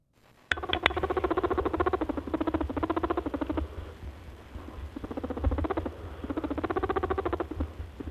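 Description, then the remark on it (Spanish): A European rabbit (Oryctolagus cuniculus) purring, a rapid stuttering run of soft pulses that comes in several bursts with brief pauses between, with no voices. “Ahí está el conejo ronroneando, con su postura erguida sobre las patas traseras, la cola blanca por su parte interior, visible cuando se alza, y un hocico intranquilo en movimiento”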